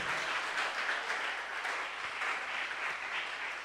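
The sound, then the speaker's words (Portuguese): An audience applauds the Lord together, a steady dense wash of many hands clapping at once, sustained and even in loudness for several seconds with no voices standing out. “Vamos aplaudir o Senhor e se coloque de pé no seu lugar.”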